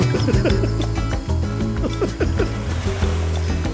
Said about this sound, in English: You, you, don't like the sound of the ocean?